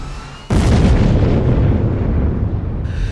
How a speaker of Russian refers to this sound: Каким-то образом мне все же удалось отбежать от машины на десяток метров, и тут сдетонировала боеукладка.